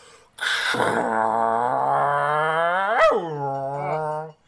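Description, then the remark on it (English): A person vocally imitates Air Force Blue Angels jets flying over New York City with one long, strained, droning voice sound that starts breathy, holds steady for several seconds, swells sharply near the end, then cuts off. Loud. “For those of you not in New York, what happened was they flew uh, some Air Force uh, planes.”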